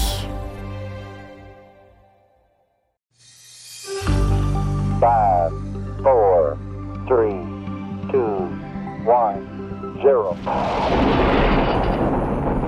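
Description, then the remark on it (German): A rocket launch sending satellites into space: after a brief hush, a loud, deep roar erupts and rumbles on steadily, with crackling bursts and rising whines pulsing through it, powerful. “Und zwar, wenn, wie geplant, künftig auch von hier aus Satelliten ins All geschossen werden.”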